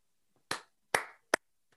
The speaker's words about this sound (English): Can you hear that well enough? That was me clapping.